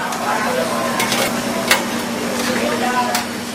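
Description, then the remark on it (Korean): Busy kitchen clatter at a falafel shop in Washington during weekday lunchtime, as staff quickly prepare food as soon as customers order: steady sizzling and stirring, a few sharp utensil clinks and knocks rising above a constant hiss and hum, with faint voices murmuring in the background. “직원들은 손님의 주문을 받자마자 빠른 손놀림으로 음식을 만들어내는데요.”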